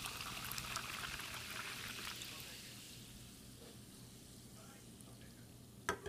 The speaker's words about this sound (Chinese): 对了，没错了，火箭队的议员听众们最期待的就是听到我喝气泡水的声音来了。今天喝的气泡水就是来自意大利的 Crodo 气泡水。